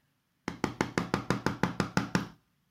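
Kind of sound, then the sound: impact, knocking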